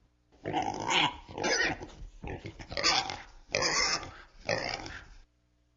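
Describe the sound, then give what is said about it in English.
A pig oinks and grunts in a run of about five loud snorting bursts, each a rough, nasal squeal-grunt separated by brief pauses, with no talking. “Pigs oink.”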